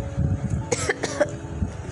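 Two sharp coughs in quick succession, close and fairly loud, over a low steady background hum with no talking.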